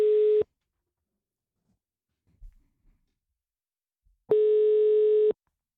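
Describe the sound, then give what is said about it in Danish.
A telephone ringback tone while calling: a steady electronic tone that sounds briefly at the start, then after a long silent pause returns as a full one-second ring, loud and clear with no voices. “Lad os prøve lige at ringe til ham øh, og se, om vi kan få ham med og høre, hvad der egentlig er så sket i hans sag siden sidst.”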